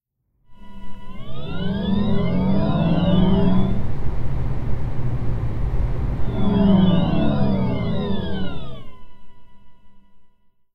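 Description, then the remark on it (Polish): A Volkswagen ID.3 electric car's artificial pedestrian warning sound, played when pulling away, driving at up to 30 km/h and reversing: a synthetic humming whine that glides in pitch, swells and holds steady for several seconds, then fades away. Fairly loud, with no voices. “posłuchajmy teraz e, sztucznego odgłosu podczas ruszania z miejsca, właśnie samochodu elektrycznego, jazdy z prędkością do 30 km na godzinę, mm, jak również w czasie jazdy na wstecznym biegu i mowa tutaj o odgłosie, jaki wydaje Volkswagen ID3.”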